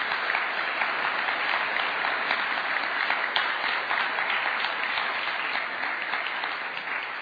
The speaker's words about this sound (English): Would you just please give me give them a round of applause for our dinner guests?